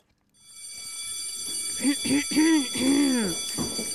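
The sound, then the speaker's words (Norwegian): A school bell rings continuously in a steady, shrill electric tone from nearly the start, signalling the start of class, with a few wavering vocal sounds rising and falling over it midway. “Jeg tror faktisk det ringer inn hvert øyeblikk.”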